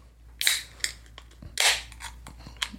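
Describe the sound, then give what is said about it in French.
A beer bottle pops open with a sharp, loud burst, followed a second later by another hissing burst and a few small glassy clicks. No one speaks. “T'as entendu comme ça pète”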